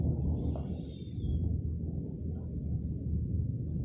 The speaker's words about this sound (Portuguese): Tem um trovão aqui está dando, não sei se aí também está. Aqui está dando.